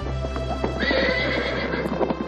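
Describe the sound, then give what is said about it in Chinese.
A war horse lets out a long, loud neigh lasting about two seconds as Xiao Ke leaps onto it, its high whinny rising and wavering over a steady low rumble, with faint hoof clatter in the background. “萧克说完，飞身上马，战马一声长嘶。”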